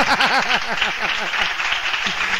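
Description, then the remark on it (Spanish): Audience applause, a dense steady wash of clapping lasting the whole clip, with rising and falling whooping cheers riding over it at the start before settling. “ok, fuerte, fuerte el aplauso.”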